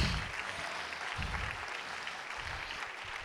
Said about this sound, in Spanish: Si le va a aplaudir, apláudele fuertes, que son para Él.